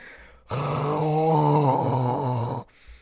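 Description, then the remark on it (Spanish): A voice imitates a man's loud snoring with one long, rough, droning groan lasting about two seconds, strong, its pitch wavering slightly before it cuts off abruptly. “El desgraciado no recordaba que estaba durmiendo, roncando durísimo.”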